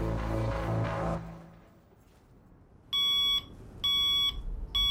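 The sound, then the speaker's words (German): An alarm clock beeps loudly in repeated bursts at 7 a.m., each a bright electronic tone, after a brief musical passage fades out into quiet background noise, until a man presses its snooze button. “drückt die Schlummertaste seines Weckers.”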